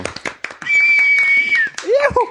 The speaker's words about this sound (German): Können wir an der Stelle kurz den Applaus einspielen? So.